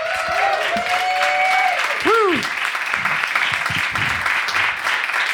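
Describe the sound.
A crowd applauds steadily as the cast comes on stage, a dense sustained clatter of clapping, with loud rising whoops and cheers from the audience breaking out over it.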